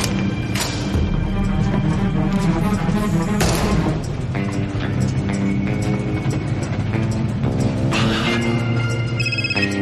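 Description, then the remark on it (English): A phone rings with a call from Chuck, repeatedly in bright, trilling bursts, sounding through a loud, busy wash of music and low rumbling thuds, with no one speaking. “Sir, pick up. Pick up your phone.”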